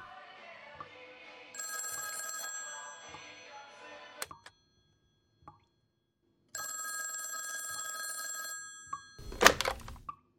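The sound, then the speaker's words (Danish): A telephone bell in an apartment rings twice in the late morning in long, rattling bursts separated by a pause of silence, clear, followed by a brief clatter at the end. “Og der tror jeg, at telefonen ringer.”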